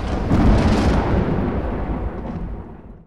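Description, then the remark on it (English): A loud thunderclap booms with a heavy low rumble that slowly fades over a few seconds. No voices, just the single powerful crack rolling away. “The thunder clapped again very loudly.”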